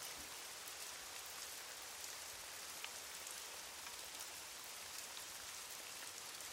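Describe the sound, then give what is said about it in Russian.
Steady rain falls throughout at a house where a film crew is shooting, a dense, even hiss with scattered drops pattering on a surface. No voices, just continuous downpour at a moderate level. “Или, может быть, именно этот дождь съемочная группа ждала несколько недель, и поэтому быстро организовались.”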